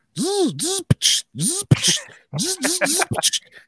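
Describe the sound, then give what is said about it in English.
A voice mimics an impact wrench with loud buzzing, whirring bursts that rise and fall in pitch, broken by short sharp clicks, repeated in a few quick runs, alone. “I carry an impact though”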